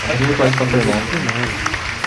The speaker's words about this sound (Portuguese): Palmas virtuais. Palmas virtuais.